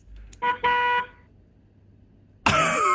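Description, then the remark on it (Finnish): A car horn honks twice in quick succession, a short beep then a longer one. After a pause of near silence, a louder, harsher blast of honking sounds. “Viisi, neljä, kolme, kaksi, yksi, töötää.”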